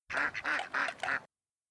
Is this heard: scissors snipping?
no